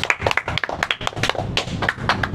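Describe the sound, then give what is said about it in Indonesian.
Audience clapping for the class 12 students: a dense, uneven patter of many hands striking at once, steady and fairly loud for the whole stretch with no voices over it. “bisa kita tepuk tangan dulu untuk kelas 12”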